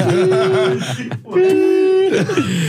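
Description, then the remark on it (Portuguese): A voice imitates a referee's final whistle, the one that signals winning the Brazilian championship, with two long, steady, high-pitched tones separated by a brief pause, fairly loud. “E quando apita assim, pi, você é, é campeão é brasileiro.”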